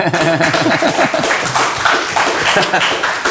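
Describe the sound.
Steady, close audience applause fills the whole stretch, a dense wash of clapping with voices talking and calling out over it.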